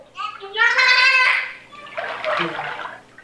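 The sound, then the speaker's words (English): A dolphin echoes back sounds its trainers made, mimicking human speech with a high, squeaky, whistly burst followed by a wetter, gurgling stretch, like a warbled word spoken through water, loud. “There are recordings of a dolphin not speaking English, but echoing back the sounds that the trainers were making.”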